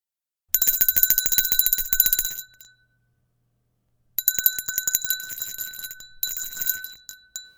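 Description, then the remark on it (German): A small bell jingles rapidly in two bursts, about two seconds each, separated by a pause, with a bright, high metallic ring and no voices. “Das Glöckchen klingelte.”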